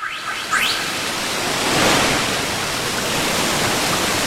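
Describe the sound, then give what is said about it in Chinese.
A strong rush of water from the Zimu River being sucked upward by Sun Wukong from atop a cloud roars steadily, opening with a quick rising whistle-like sweep and swelling briefly midway, with no voices. “悟空就这么嗖的跳上云头，藏起身来，对着子母河用力一吸，”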